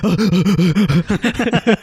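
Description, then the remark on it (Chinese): A person imitates a dog's excited, heavy panting: about a dozen quick, loud, rhythmic breathy huffs with voiced pitch, in a steady fast pattern with no words spoken. “对对对对对，哎，他是日常就这样，然后如果如果我们大家不理他，他就会喘息声就会越来越小嘛。但是只要有人跟他对到眼，哦，他喘息声就会，”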